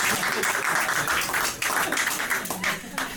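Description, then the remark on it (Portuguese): A crowd applauds, a dense, steady wash of many hands clapping that holds at an even loudness for about three seconds without a pause. “Não batam palmas.”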